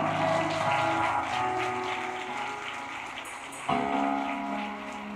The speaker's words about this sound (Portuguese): Vamos aplaudir bem forte ao Senhor.